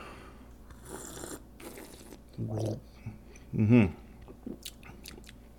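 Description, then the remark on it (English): A brief sip and slurp of a French Bordeaux red wine, aged 12 months in oak barrels, followed by a short appreciative murmur from the taster, over a quiet background. “Yeah, and so uh, let's take a sip here.”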